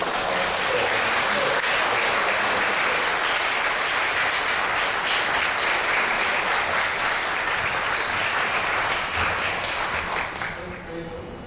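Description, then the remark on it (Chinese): A church audience applauds steadily for about ten seconds as a pastor is invited up, a dense, even wash of many hands clapping that holds a constant loudness and then tapers off quickly at the end. “啊，最后，各位人人掌声，也请阿牧师。”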